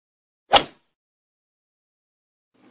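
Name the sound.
beer can being opened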